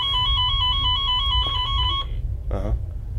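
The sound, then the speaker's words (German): Walkie-talkie radios beep: a steady, high electronic tone holds for about two seconds, then a short warbling chirp follows, all over a constant low rumble. “Das sind unsere Funkgeräte.”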